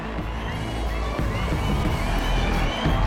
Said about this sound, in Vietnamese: Giọng bình luận viên vang lên, tiếng họ reo hưởng ứng từ đám đông như một sóng âm của niềm vui sướng làm rung chuyển cả nền đất của nhà thi đấu.